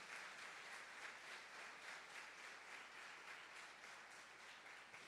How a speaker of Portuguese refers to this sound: Se você querer, dê uma salva de palmas a Jesus. Aleluia.